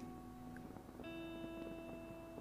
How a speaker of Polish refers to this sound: Okej, okay, zamykasz za sobą drzwi, przekręcasz. Słyszycie ten dźwięk, który urasta teraz. Wiecie, to jest zwykły dźwięk zamka, to nie, nie jest w żaden sposób spotęgowany,